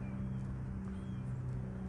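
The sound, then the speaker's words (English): A heavy truck grinding up tree limbs, heard from about a block away, makes a steady, loud mechanical drone with a deep humming engine tone that runs unbroken throughout, with no voices. “I'm a whole block away from a truck that is just destroying the limbs of trees, grinding them up.”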